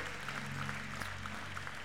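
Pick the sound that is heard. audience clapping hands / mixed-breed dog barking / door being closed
audience clapping hands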